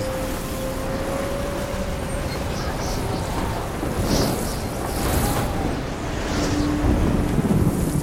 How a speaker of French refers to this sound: Mais le jour venu, la tempête ne faiblit pas. Le vent souffle avec la même rage. Une pluie horizontale fouette les visages.